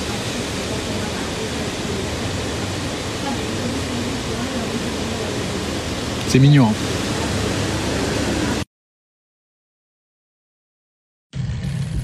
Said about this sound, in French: Sinon c'est plutôt joli ici. Hein. J'ai vu sur, euh, sur la rivière qui descend. D'ailleurs vous l'entendez.